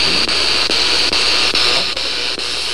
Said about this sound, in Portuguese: Não, mas tá dando interferência.